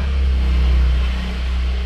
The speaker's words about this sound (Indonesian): kenceng amat ya Iya, iya motor iya. emang ya. kenceng-kenceng sekarang.